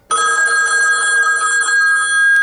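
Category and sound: signal or alarm, telephone ringing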